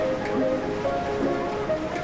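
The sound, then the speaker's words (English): Steady seaside ambience at the Siesta Seaside with a strong sea breeze: a continuous wash of surf and rushing air, even in level, with faint tonal streaks drifting through the background and no voices. “She held her hat to her head against the strong sea breeze, her scarf dancing away from her”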